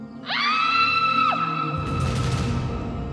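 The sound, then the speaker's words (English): A single loud, high-pitched scream shoots up, holds shrilly for about a second, then drops away, followed by a rushing, noisy burst of sound. No one speaks. “Rama and Lakshmana looked up at the sound of a scream.”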